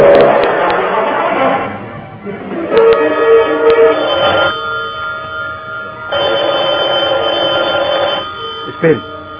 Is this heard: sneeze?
no